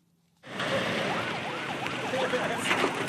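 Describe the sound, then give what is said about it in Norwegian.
A wailing emergency-vehicle siren rises and falls repeatedly over a loud, steady rumble of engines, which cuts in abruptly after a moment of near silence, as freshly washed white vehicles with blue lights drive out from the simple airport in Diffa, Niger, under a high, burning sun. “Nyvaskede, hvite biler med blålys kjører ut fra den enkle flyplassen i Diffa i Niger.”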